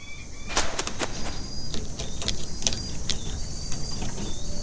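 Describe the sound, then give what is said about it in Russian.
An owl stalking a vole at night: a series of sharp crackles and rustling snaps scattered irregularly over a steady low rumble, with a faint thin high-pitched tone running through the background. “А вот килограмм смертельного пуха. Сова выслеживает полевку.”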